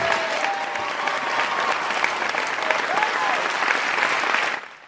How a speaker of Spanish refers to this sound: ¡Vamos, aplausos! ¡Sí! Bravo.